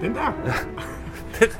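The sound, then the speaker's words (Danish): A small Jack Russell terrier, a dog the size of a cat, gives a short, sharp bark or yip as it walks along a quay, amid people talking and laughing, the dog sound brief. “Jeg vil, vil lige forklare, at det er en hund på størrelse med en kat, der øh, går hen langs kajen.”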